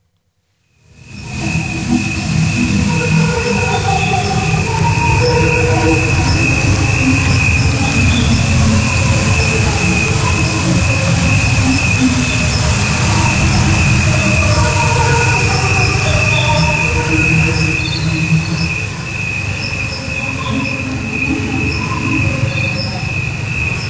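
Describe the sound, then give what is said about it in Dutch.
A steady, high-pitched trill of local crickets runs throughout, layered over a dense, rumbling bed of lower warbling pulses: a cricket's sound slowed down to the length of a human life and projected into the surroundings during a walk through nature. Continuous and fairly loud, with no one talking. “En dat hoor je dan, je hoort de krekels van de omgeving en dat geluid dat hij in die omgeving projecteert.”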